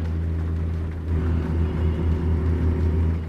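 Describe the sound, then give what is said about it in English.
A semi truck engine drones with a deep, steady rumble that swells slightly after a moment as the driver shifts up through the gears, continuous throughout, with no voices. “It's so nice though, because I can get this truck up to speed and flick through the gears like nobody's business.”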